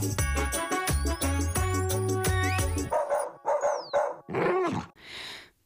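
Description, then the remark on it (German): A bouncy reggae song made for dogs, with steady beats, plays for a few seconds, then gives way to a series of short, high-pitched squeaks and yelps like a squeaky dog toy, loud. “Zum Beispiel bestimmte Hochfrequenztöne, quietschende Hundespielzeuge und solche bekannten Phrasen wie Good Girl oder Good Boy, also braver Junge, braves Mädchen.”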